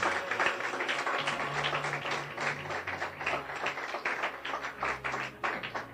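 A church audience claps steadily for several seconds, giving applause to the Lord, a dense, crackling patter of many hands over a low sustained hum, with no voices standing out.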